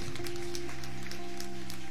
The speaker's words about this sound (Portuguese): Enquanto você aplaude, diga glória a Deus.